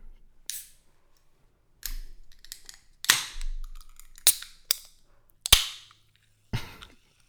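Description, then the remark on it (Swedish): Monster Ultra energy drink cans being cracked open, a series of sharp metallic snaps, each followed by a short fizzing hiss, spaced unevenly over several seconds with no talking. “det är så gött ljud. det är helt sjukt. Monster Ultra.”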